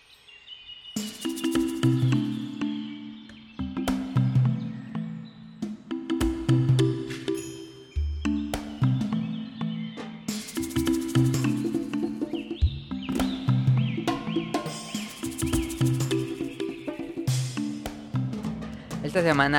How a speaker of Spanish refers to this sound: escucharon el opening. A ver si ustedes se acuerdan de esa caricatura.